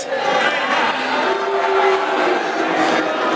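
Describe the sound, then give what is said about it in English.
An audience on their feet cheers, sings and makes noise together during a sermon exercise: a dense, steady roar of many voices with shouts and whoops, staying loud throughout. “Lots of noise, lots of cheering, lots of singing.”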